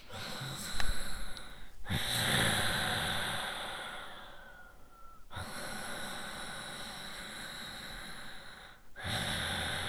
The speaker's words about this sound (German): irgendwann, wenn man, so wie ich, einige Jahre Yoga gemacht hat, stellt sich so eine Art Automatismus ein. Man kommt auf seine Matte und fängt an, direkt in Ujjayi zu atmen.